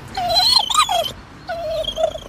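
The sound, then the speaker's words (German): A reading dog, one that children read aloud to, whines and whimpers in two drawn-out, wavering bursts separated by a brief pause, with no voices around it. “Lesen lernen mit Lesehund”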